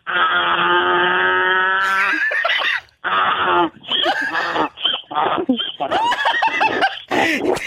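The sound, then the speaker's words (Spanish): A person loudly imitates the bray of a donkey in May: a long sustained honking note, then a string of rough, rhythmic hee-haw bursts with brief gaps, alone without other talk. “Ah, el burro de mayo hace así, así hace, así hace mi diva, ¿eh?”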